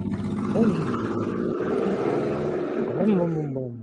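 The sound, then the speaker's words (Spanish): A voice imitates the engine of a sponsored chopper motorcycle revving, a loud, rough, continuous growl that rises in pitch twice, near the start and again toward the end, before tapering off. “Esa es una chopper. Se nota.”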